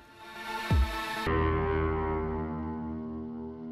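A heavily distorted electronic music track plays with no voices, opening with a sharp descending sweep before dense, buzzing synth layers and a low droning bass take over at a steady, loud level.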